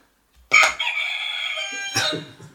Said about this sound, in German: Raphael, wie klingt dein Buzzer?